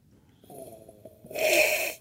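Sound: loud nasal snort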